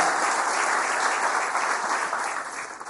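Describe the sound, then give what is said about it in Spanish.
A church audience claps steadily for a church member coming forward, a dense wash of many hands applauding at fairly even loudness, fading slightly toward the end, with no voices standing out. “Yo quiero que le demos un aplauso,”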